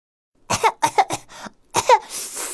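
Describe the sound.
A voice imitates a fit of coughing for a fire-breathing dragon character whose throat is burning from spiciness: a quick run of four sharp coughs, a short pause, then two more raspy coughs trailing into a breathy hiss.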